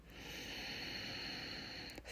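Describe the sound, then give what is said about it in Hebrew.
A woman draws a long, steady breath, a soft airy rush lasting about two seconds with a faint catch near the end. No talking. “לוקחת לזה נשימה ומתחברת רגע לאנרגיה הנקבית שבי כדי לתקשר את זה באמת באמת מהרחם ומהלב שלי.”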